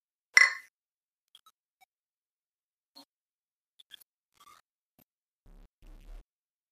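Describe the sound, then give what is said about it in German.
Two beer bottles clink together once in a sharp, bright toast near the start, followed by a few faint small clicks and a soft low rumble toward the end. No one speaks. “Ja, Prost, ja.”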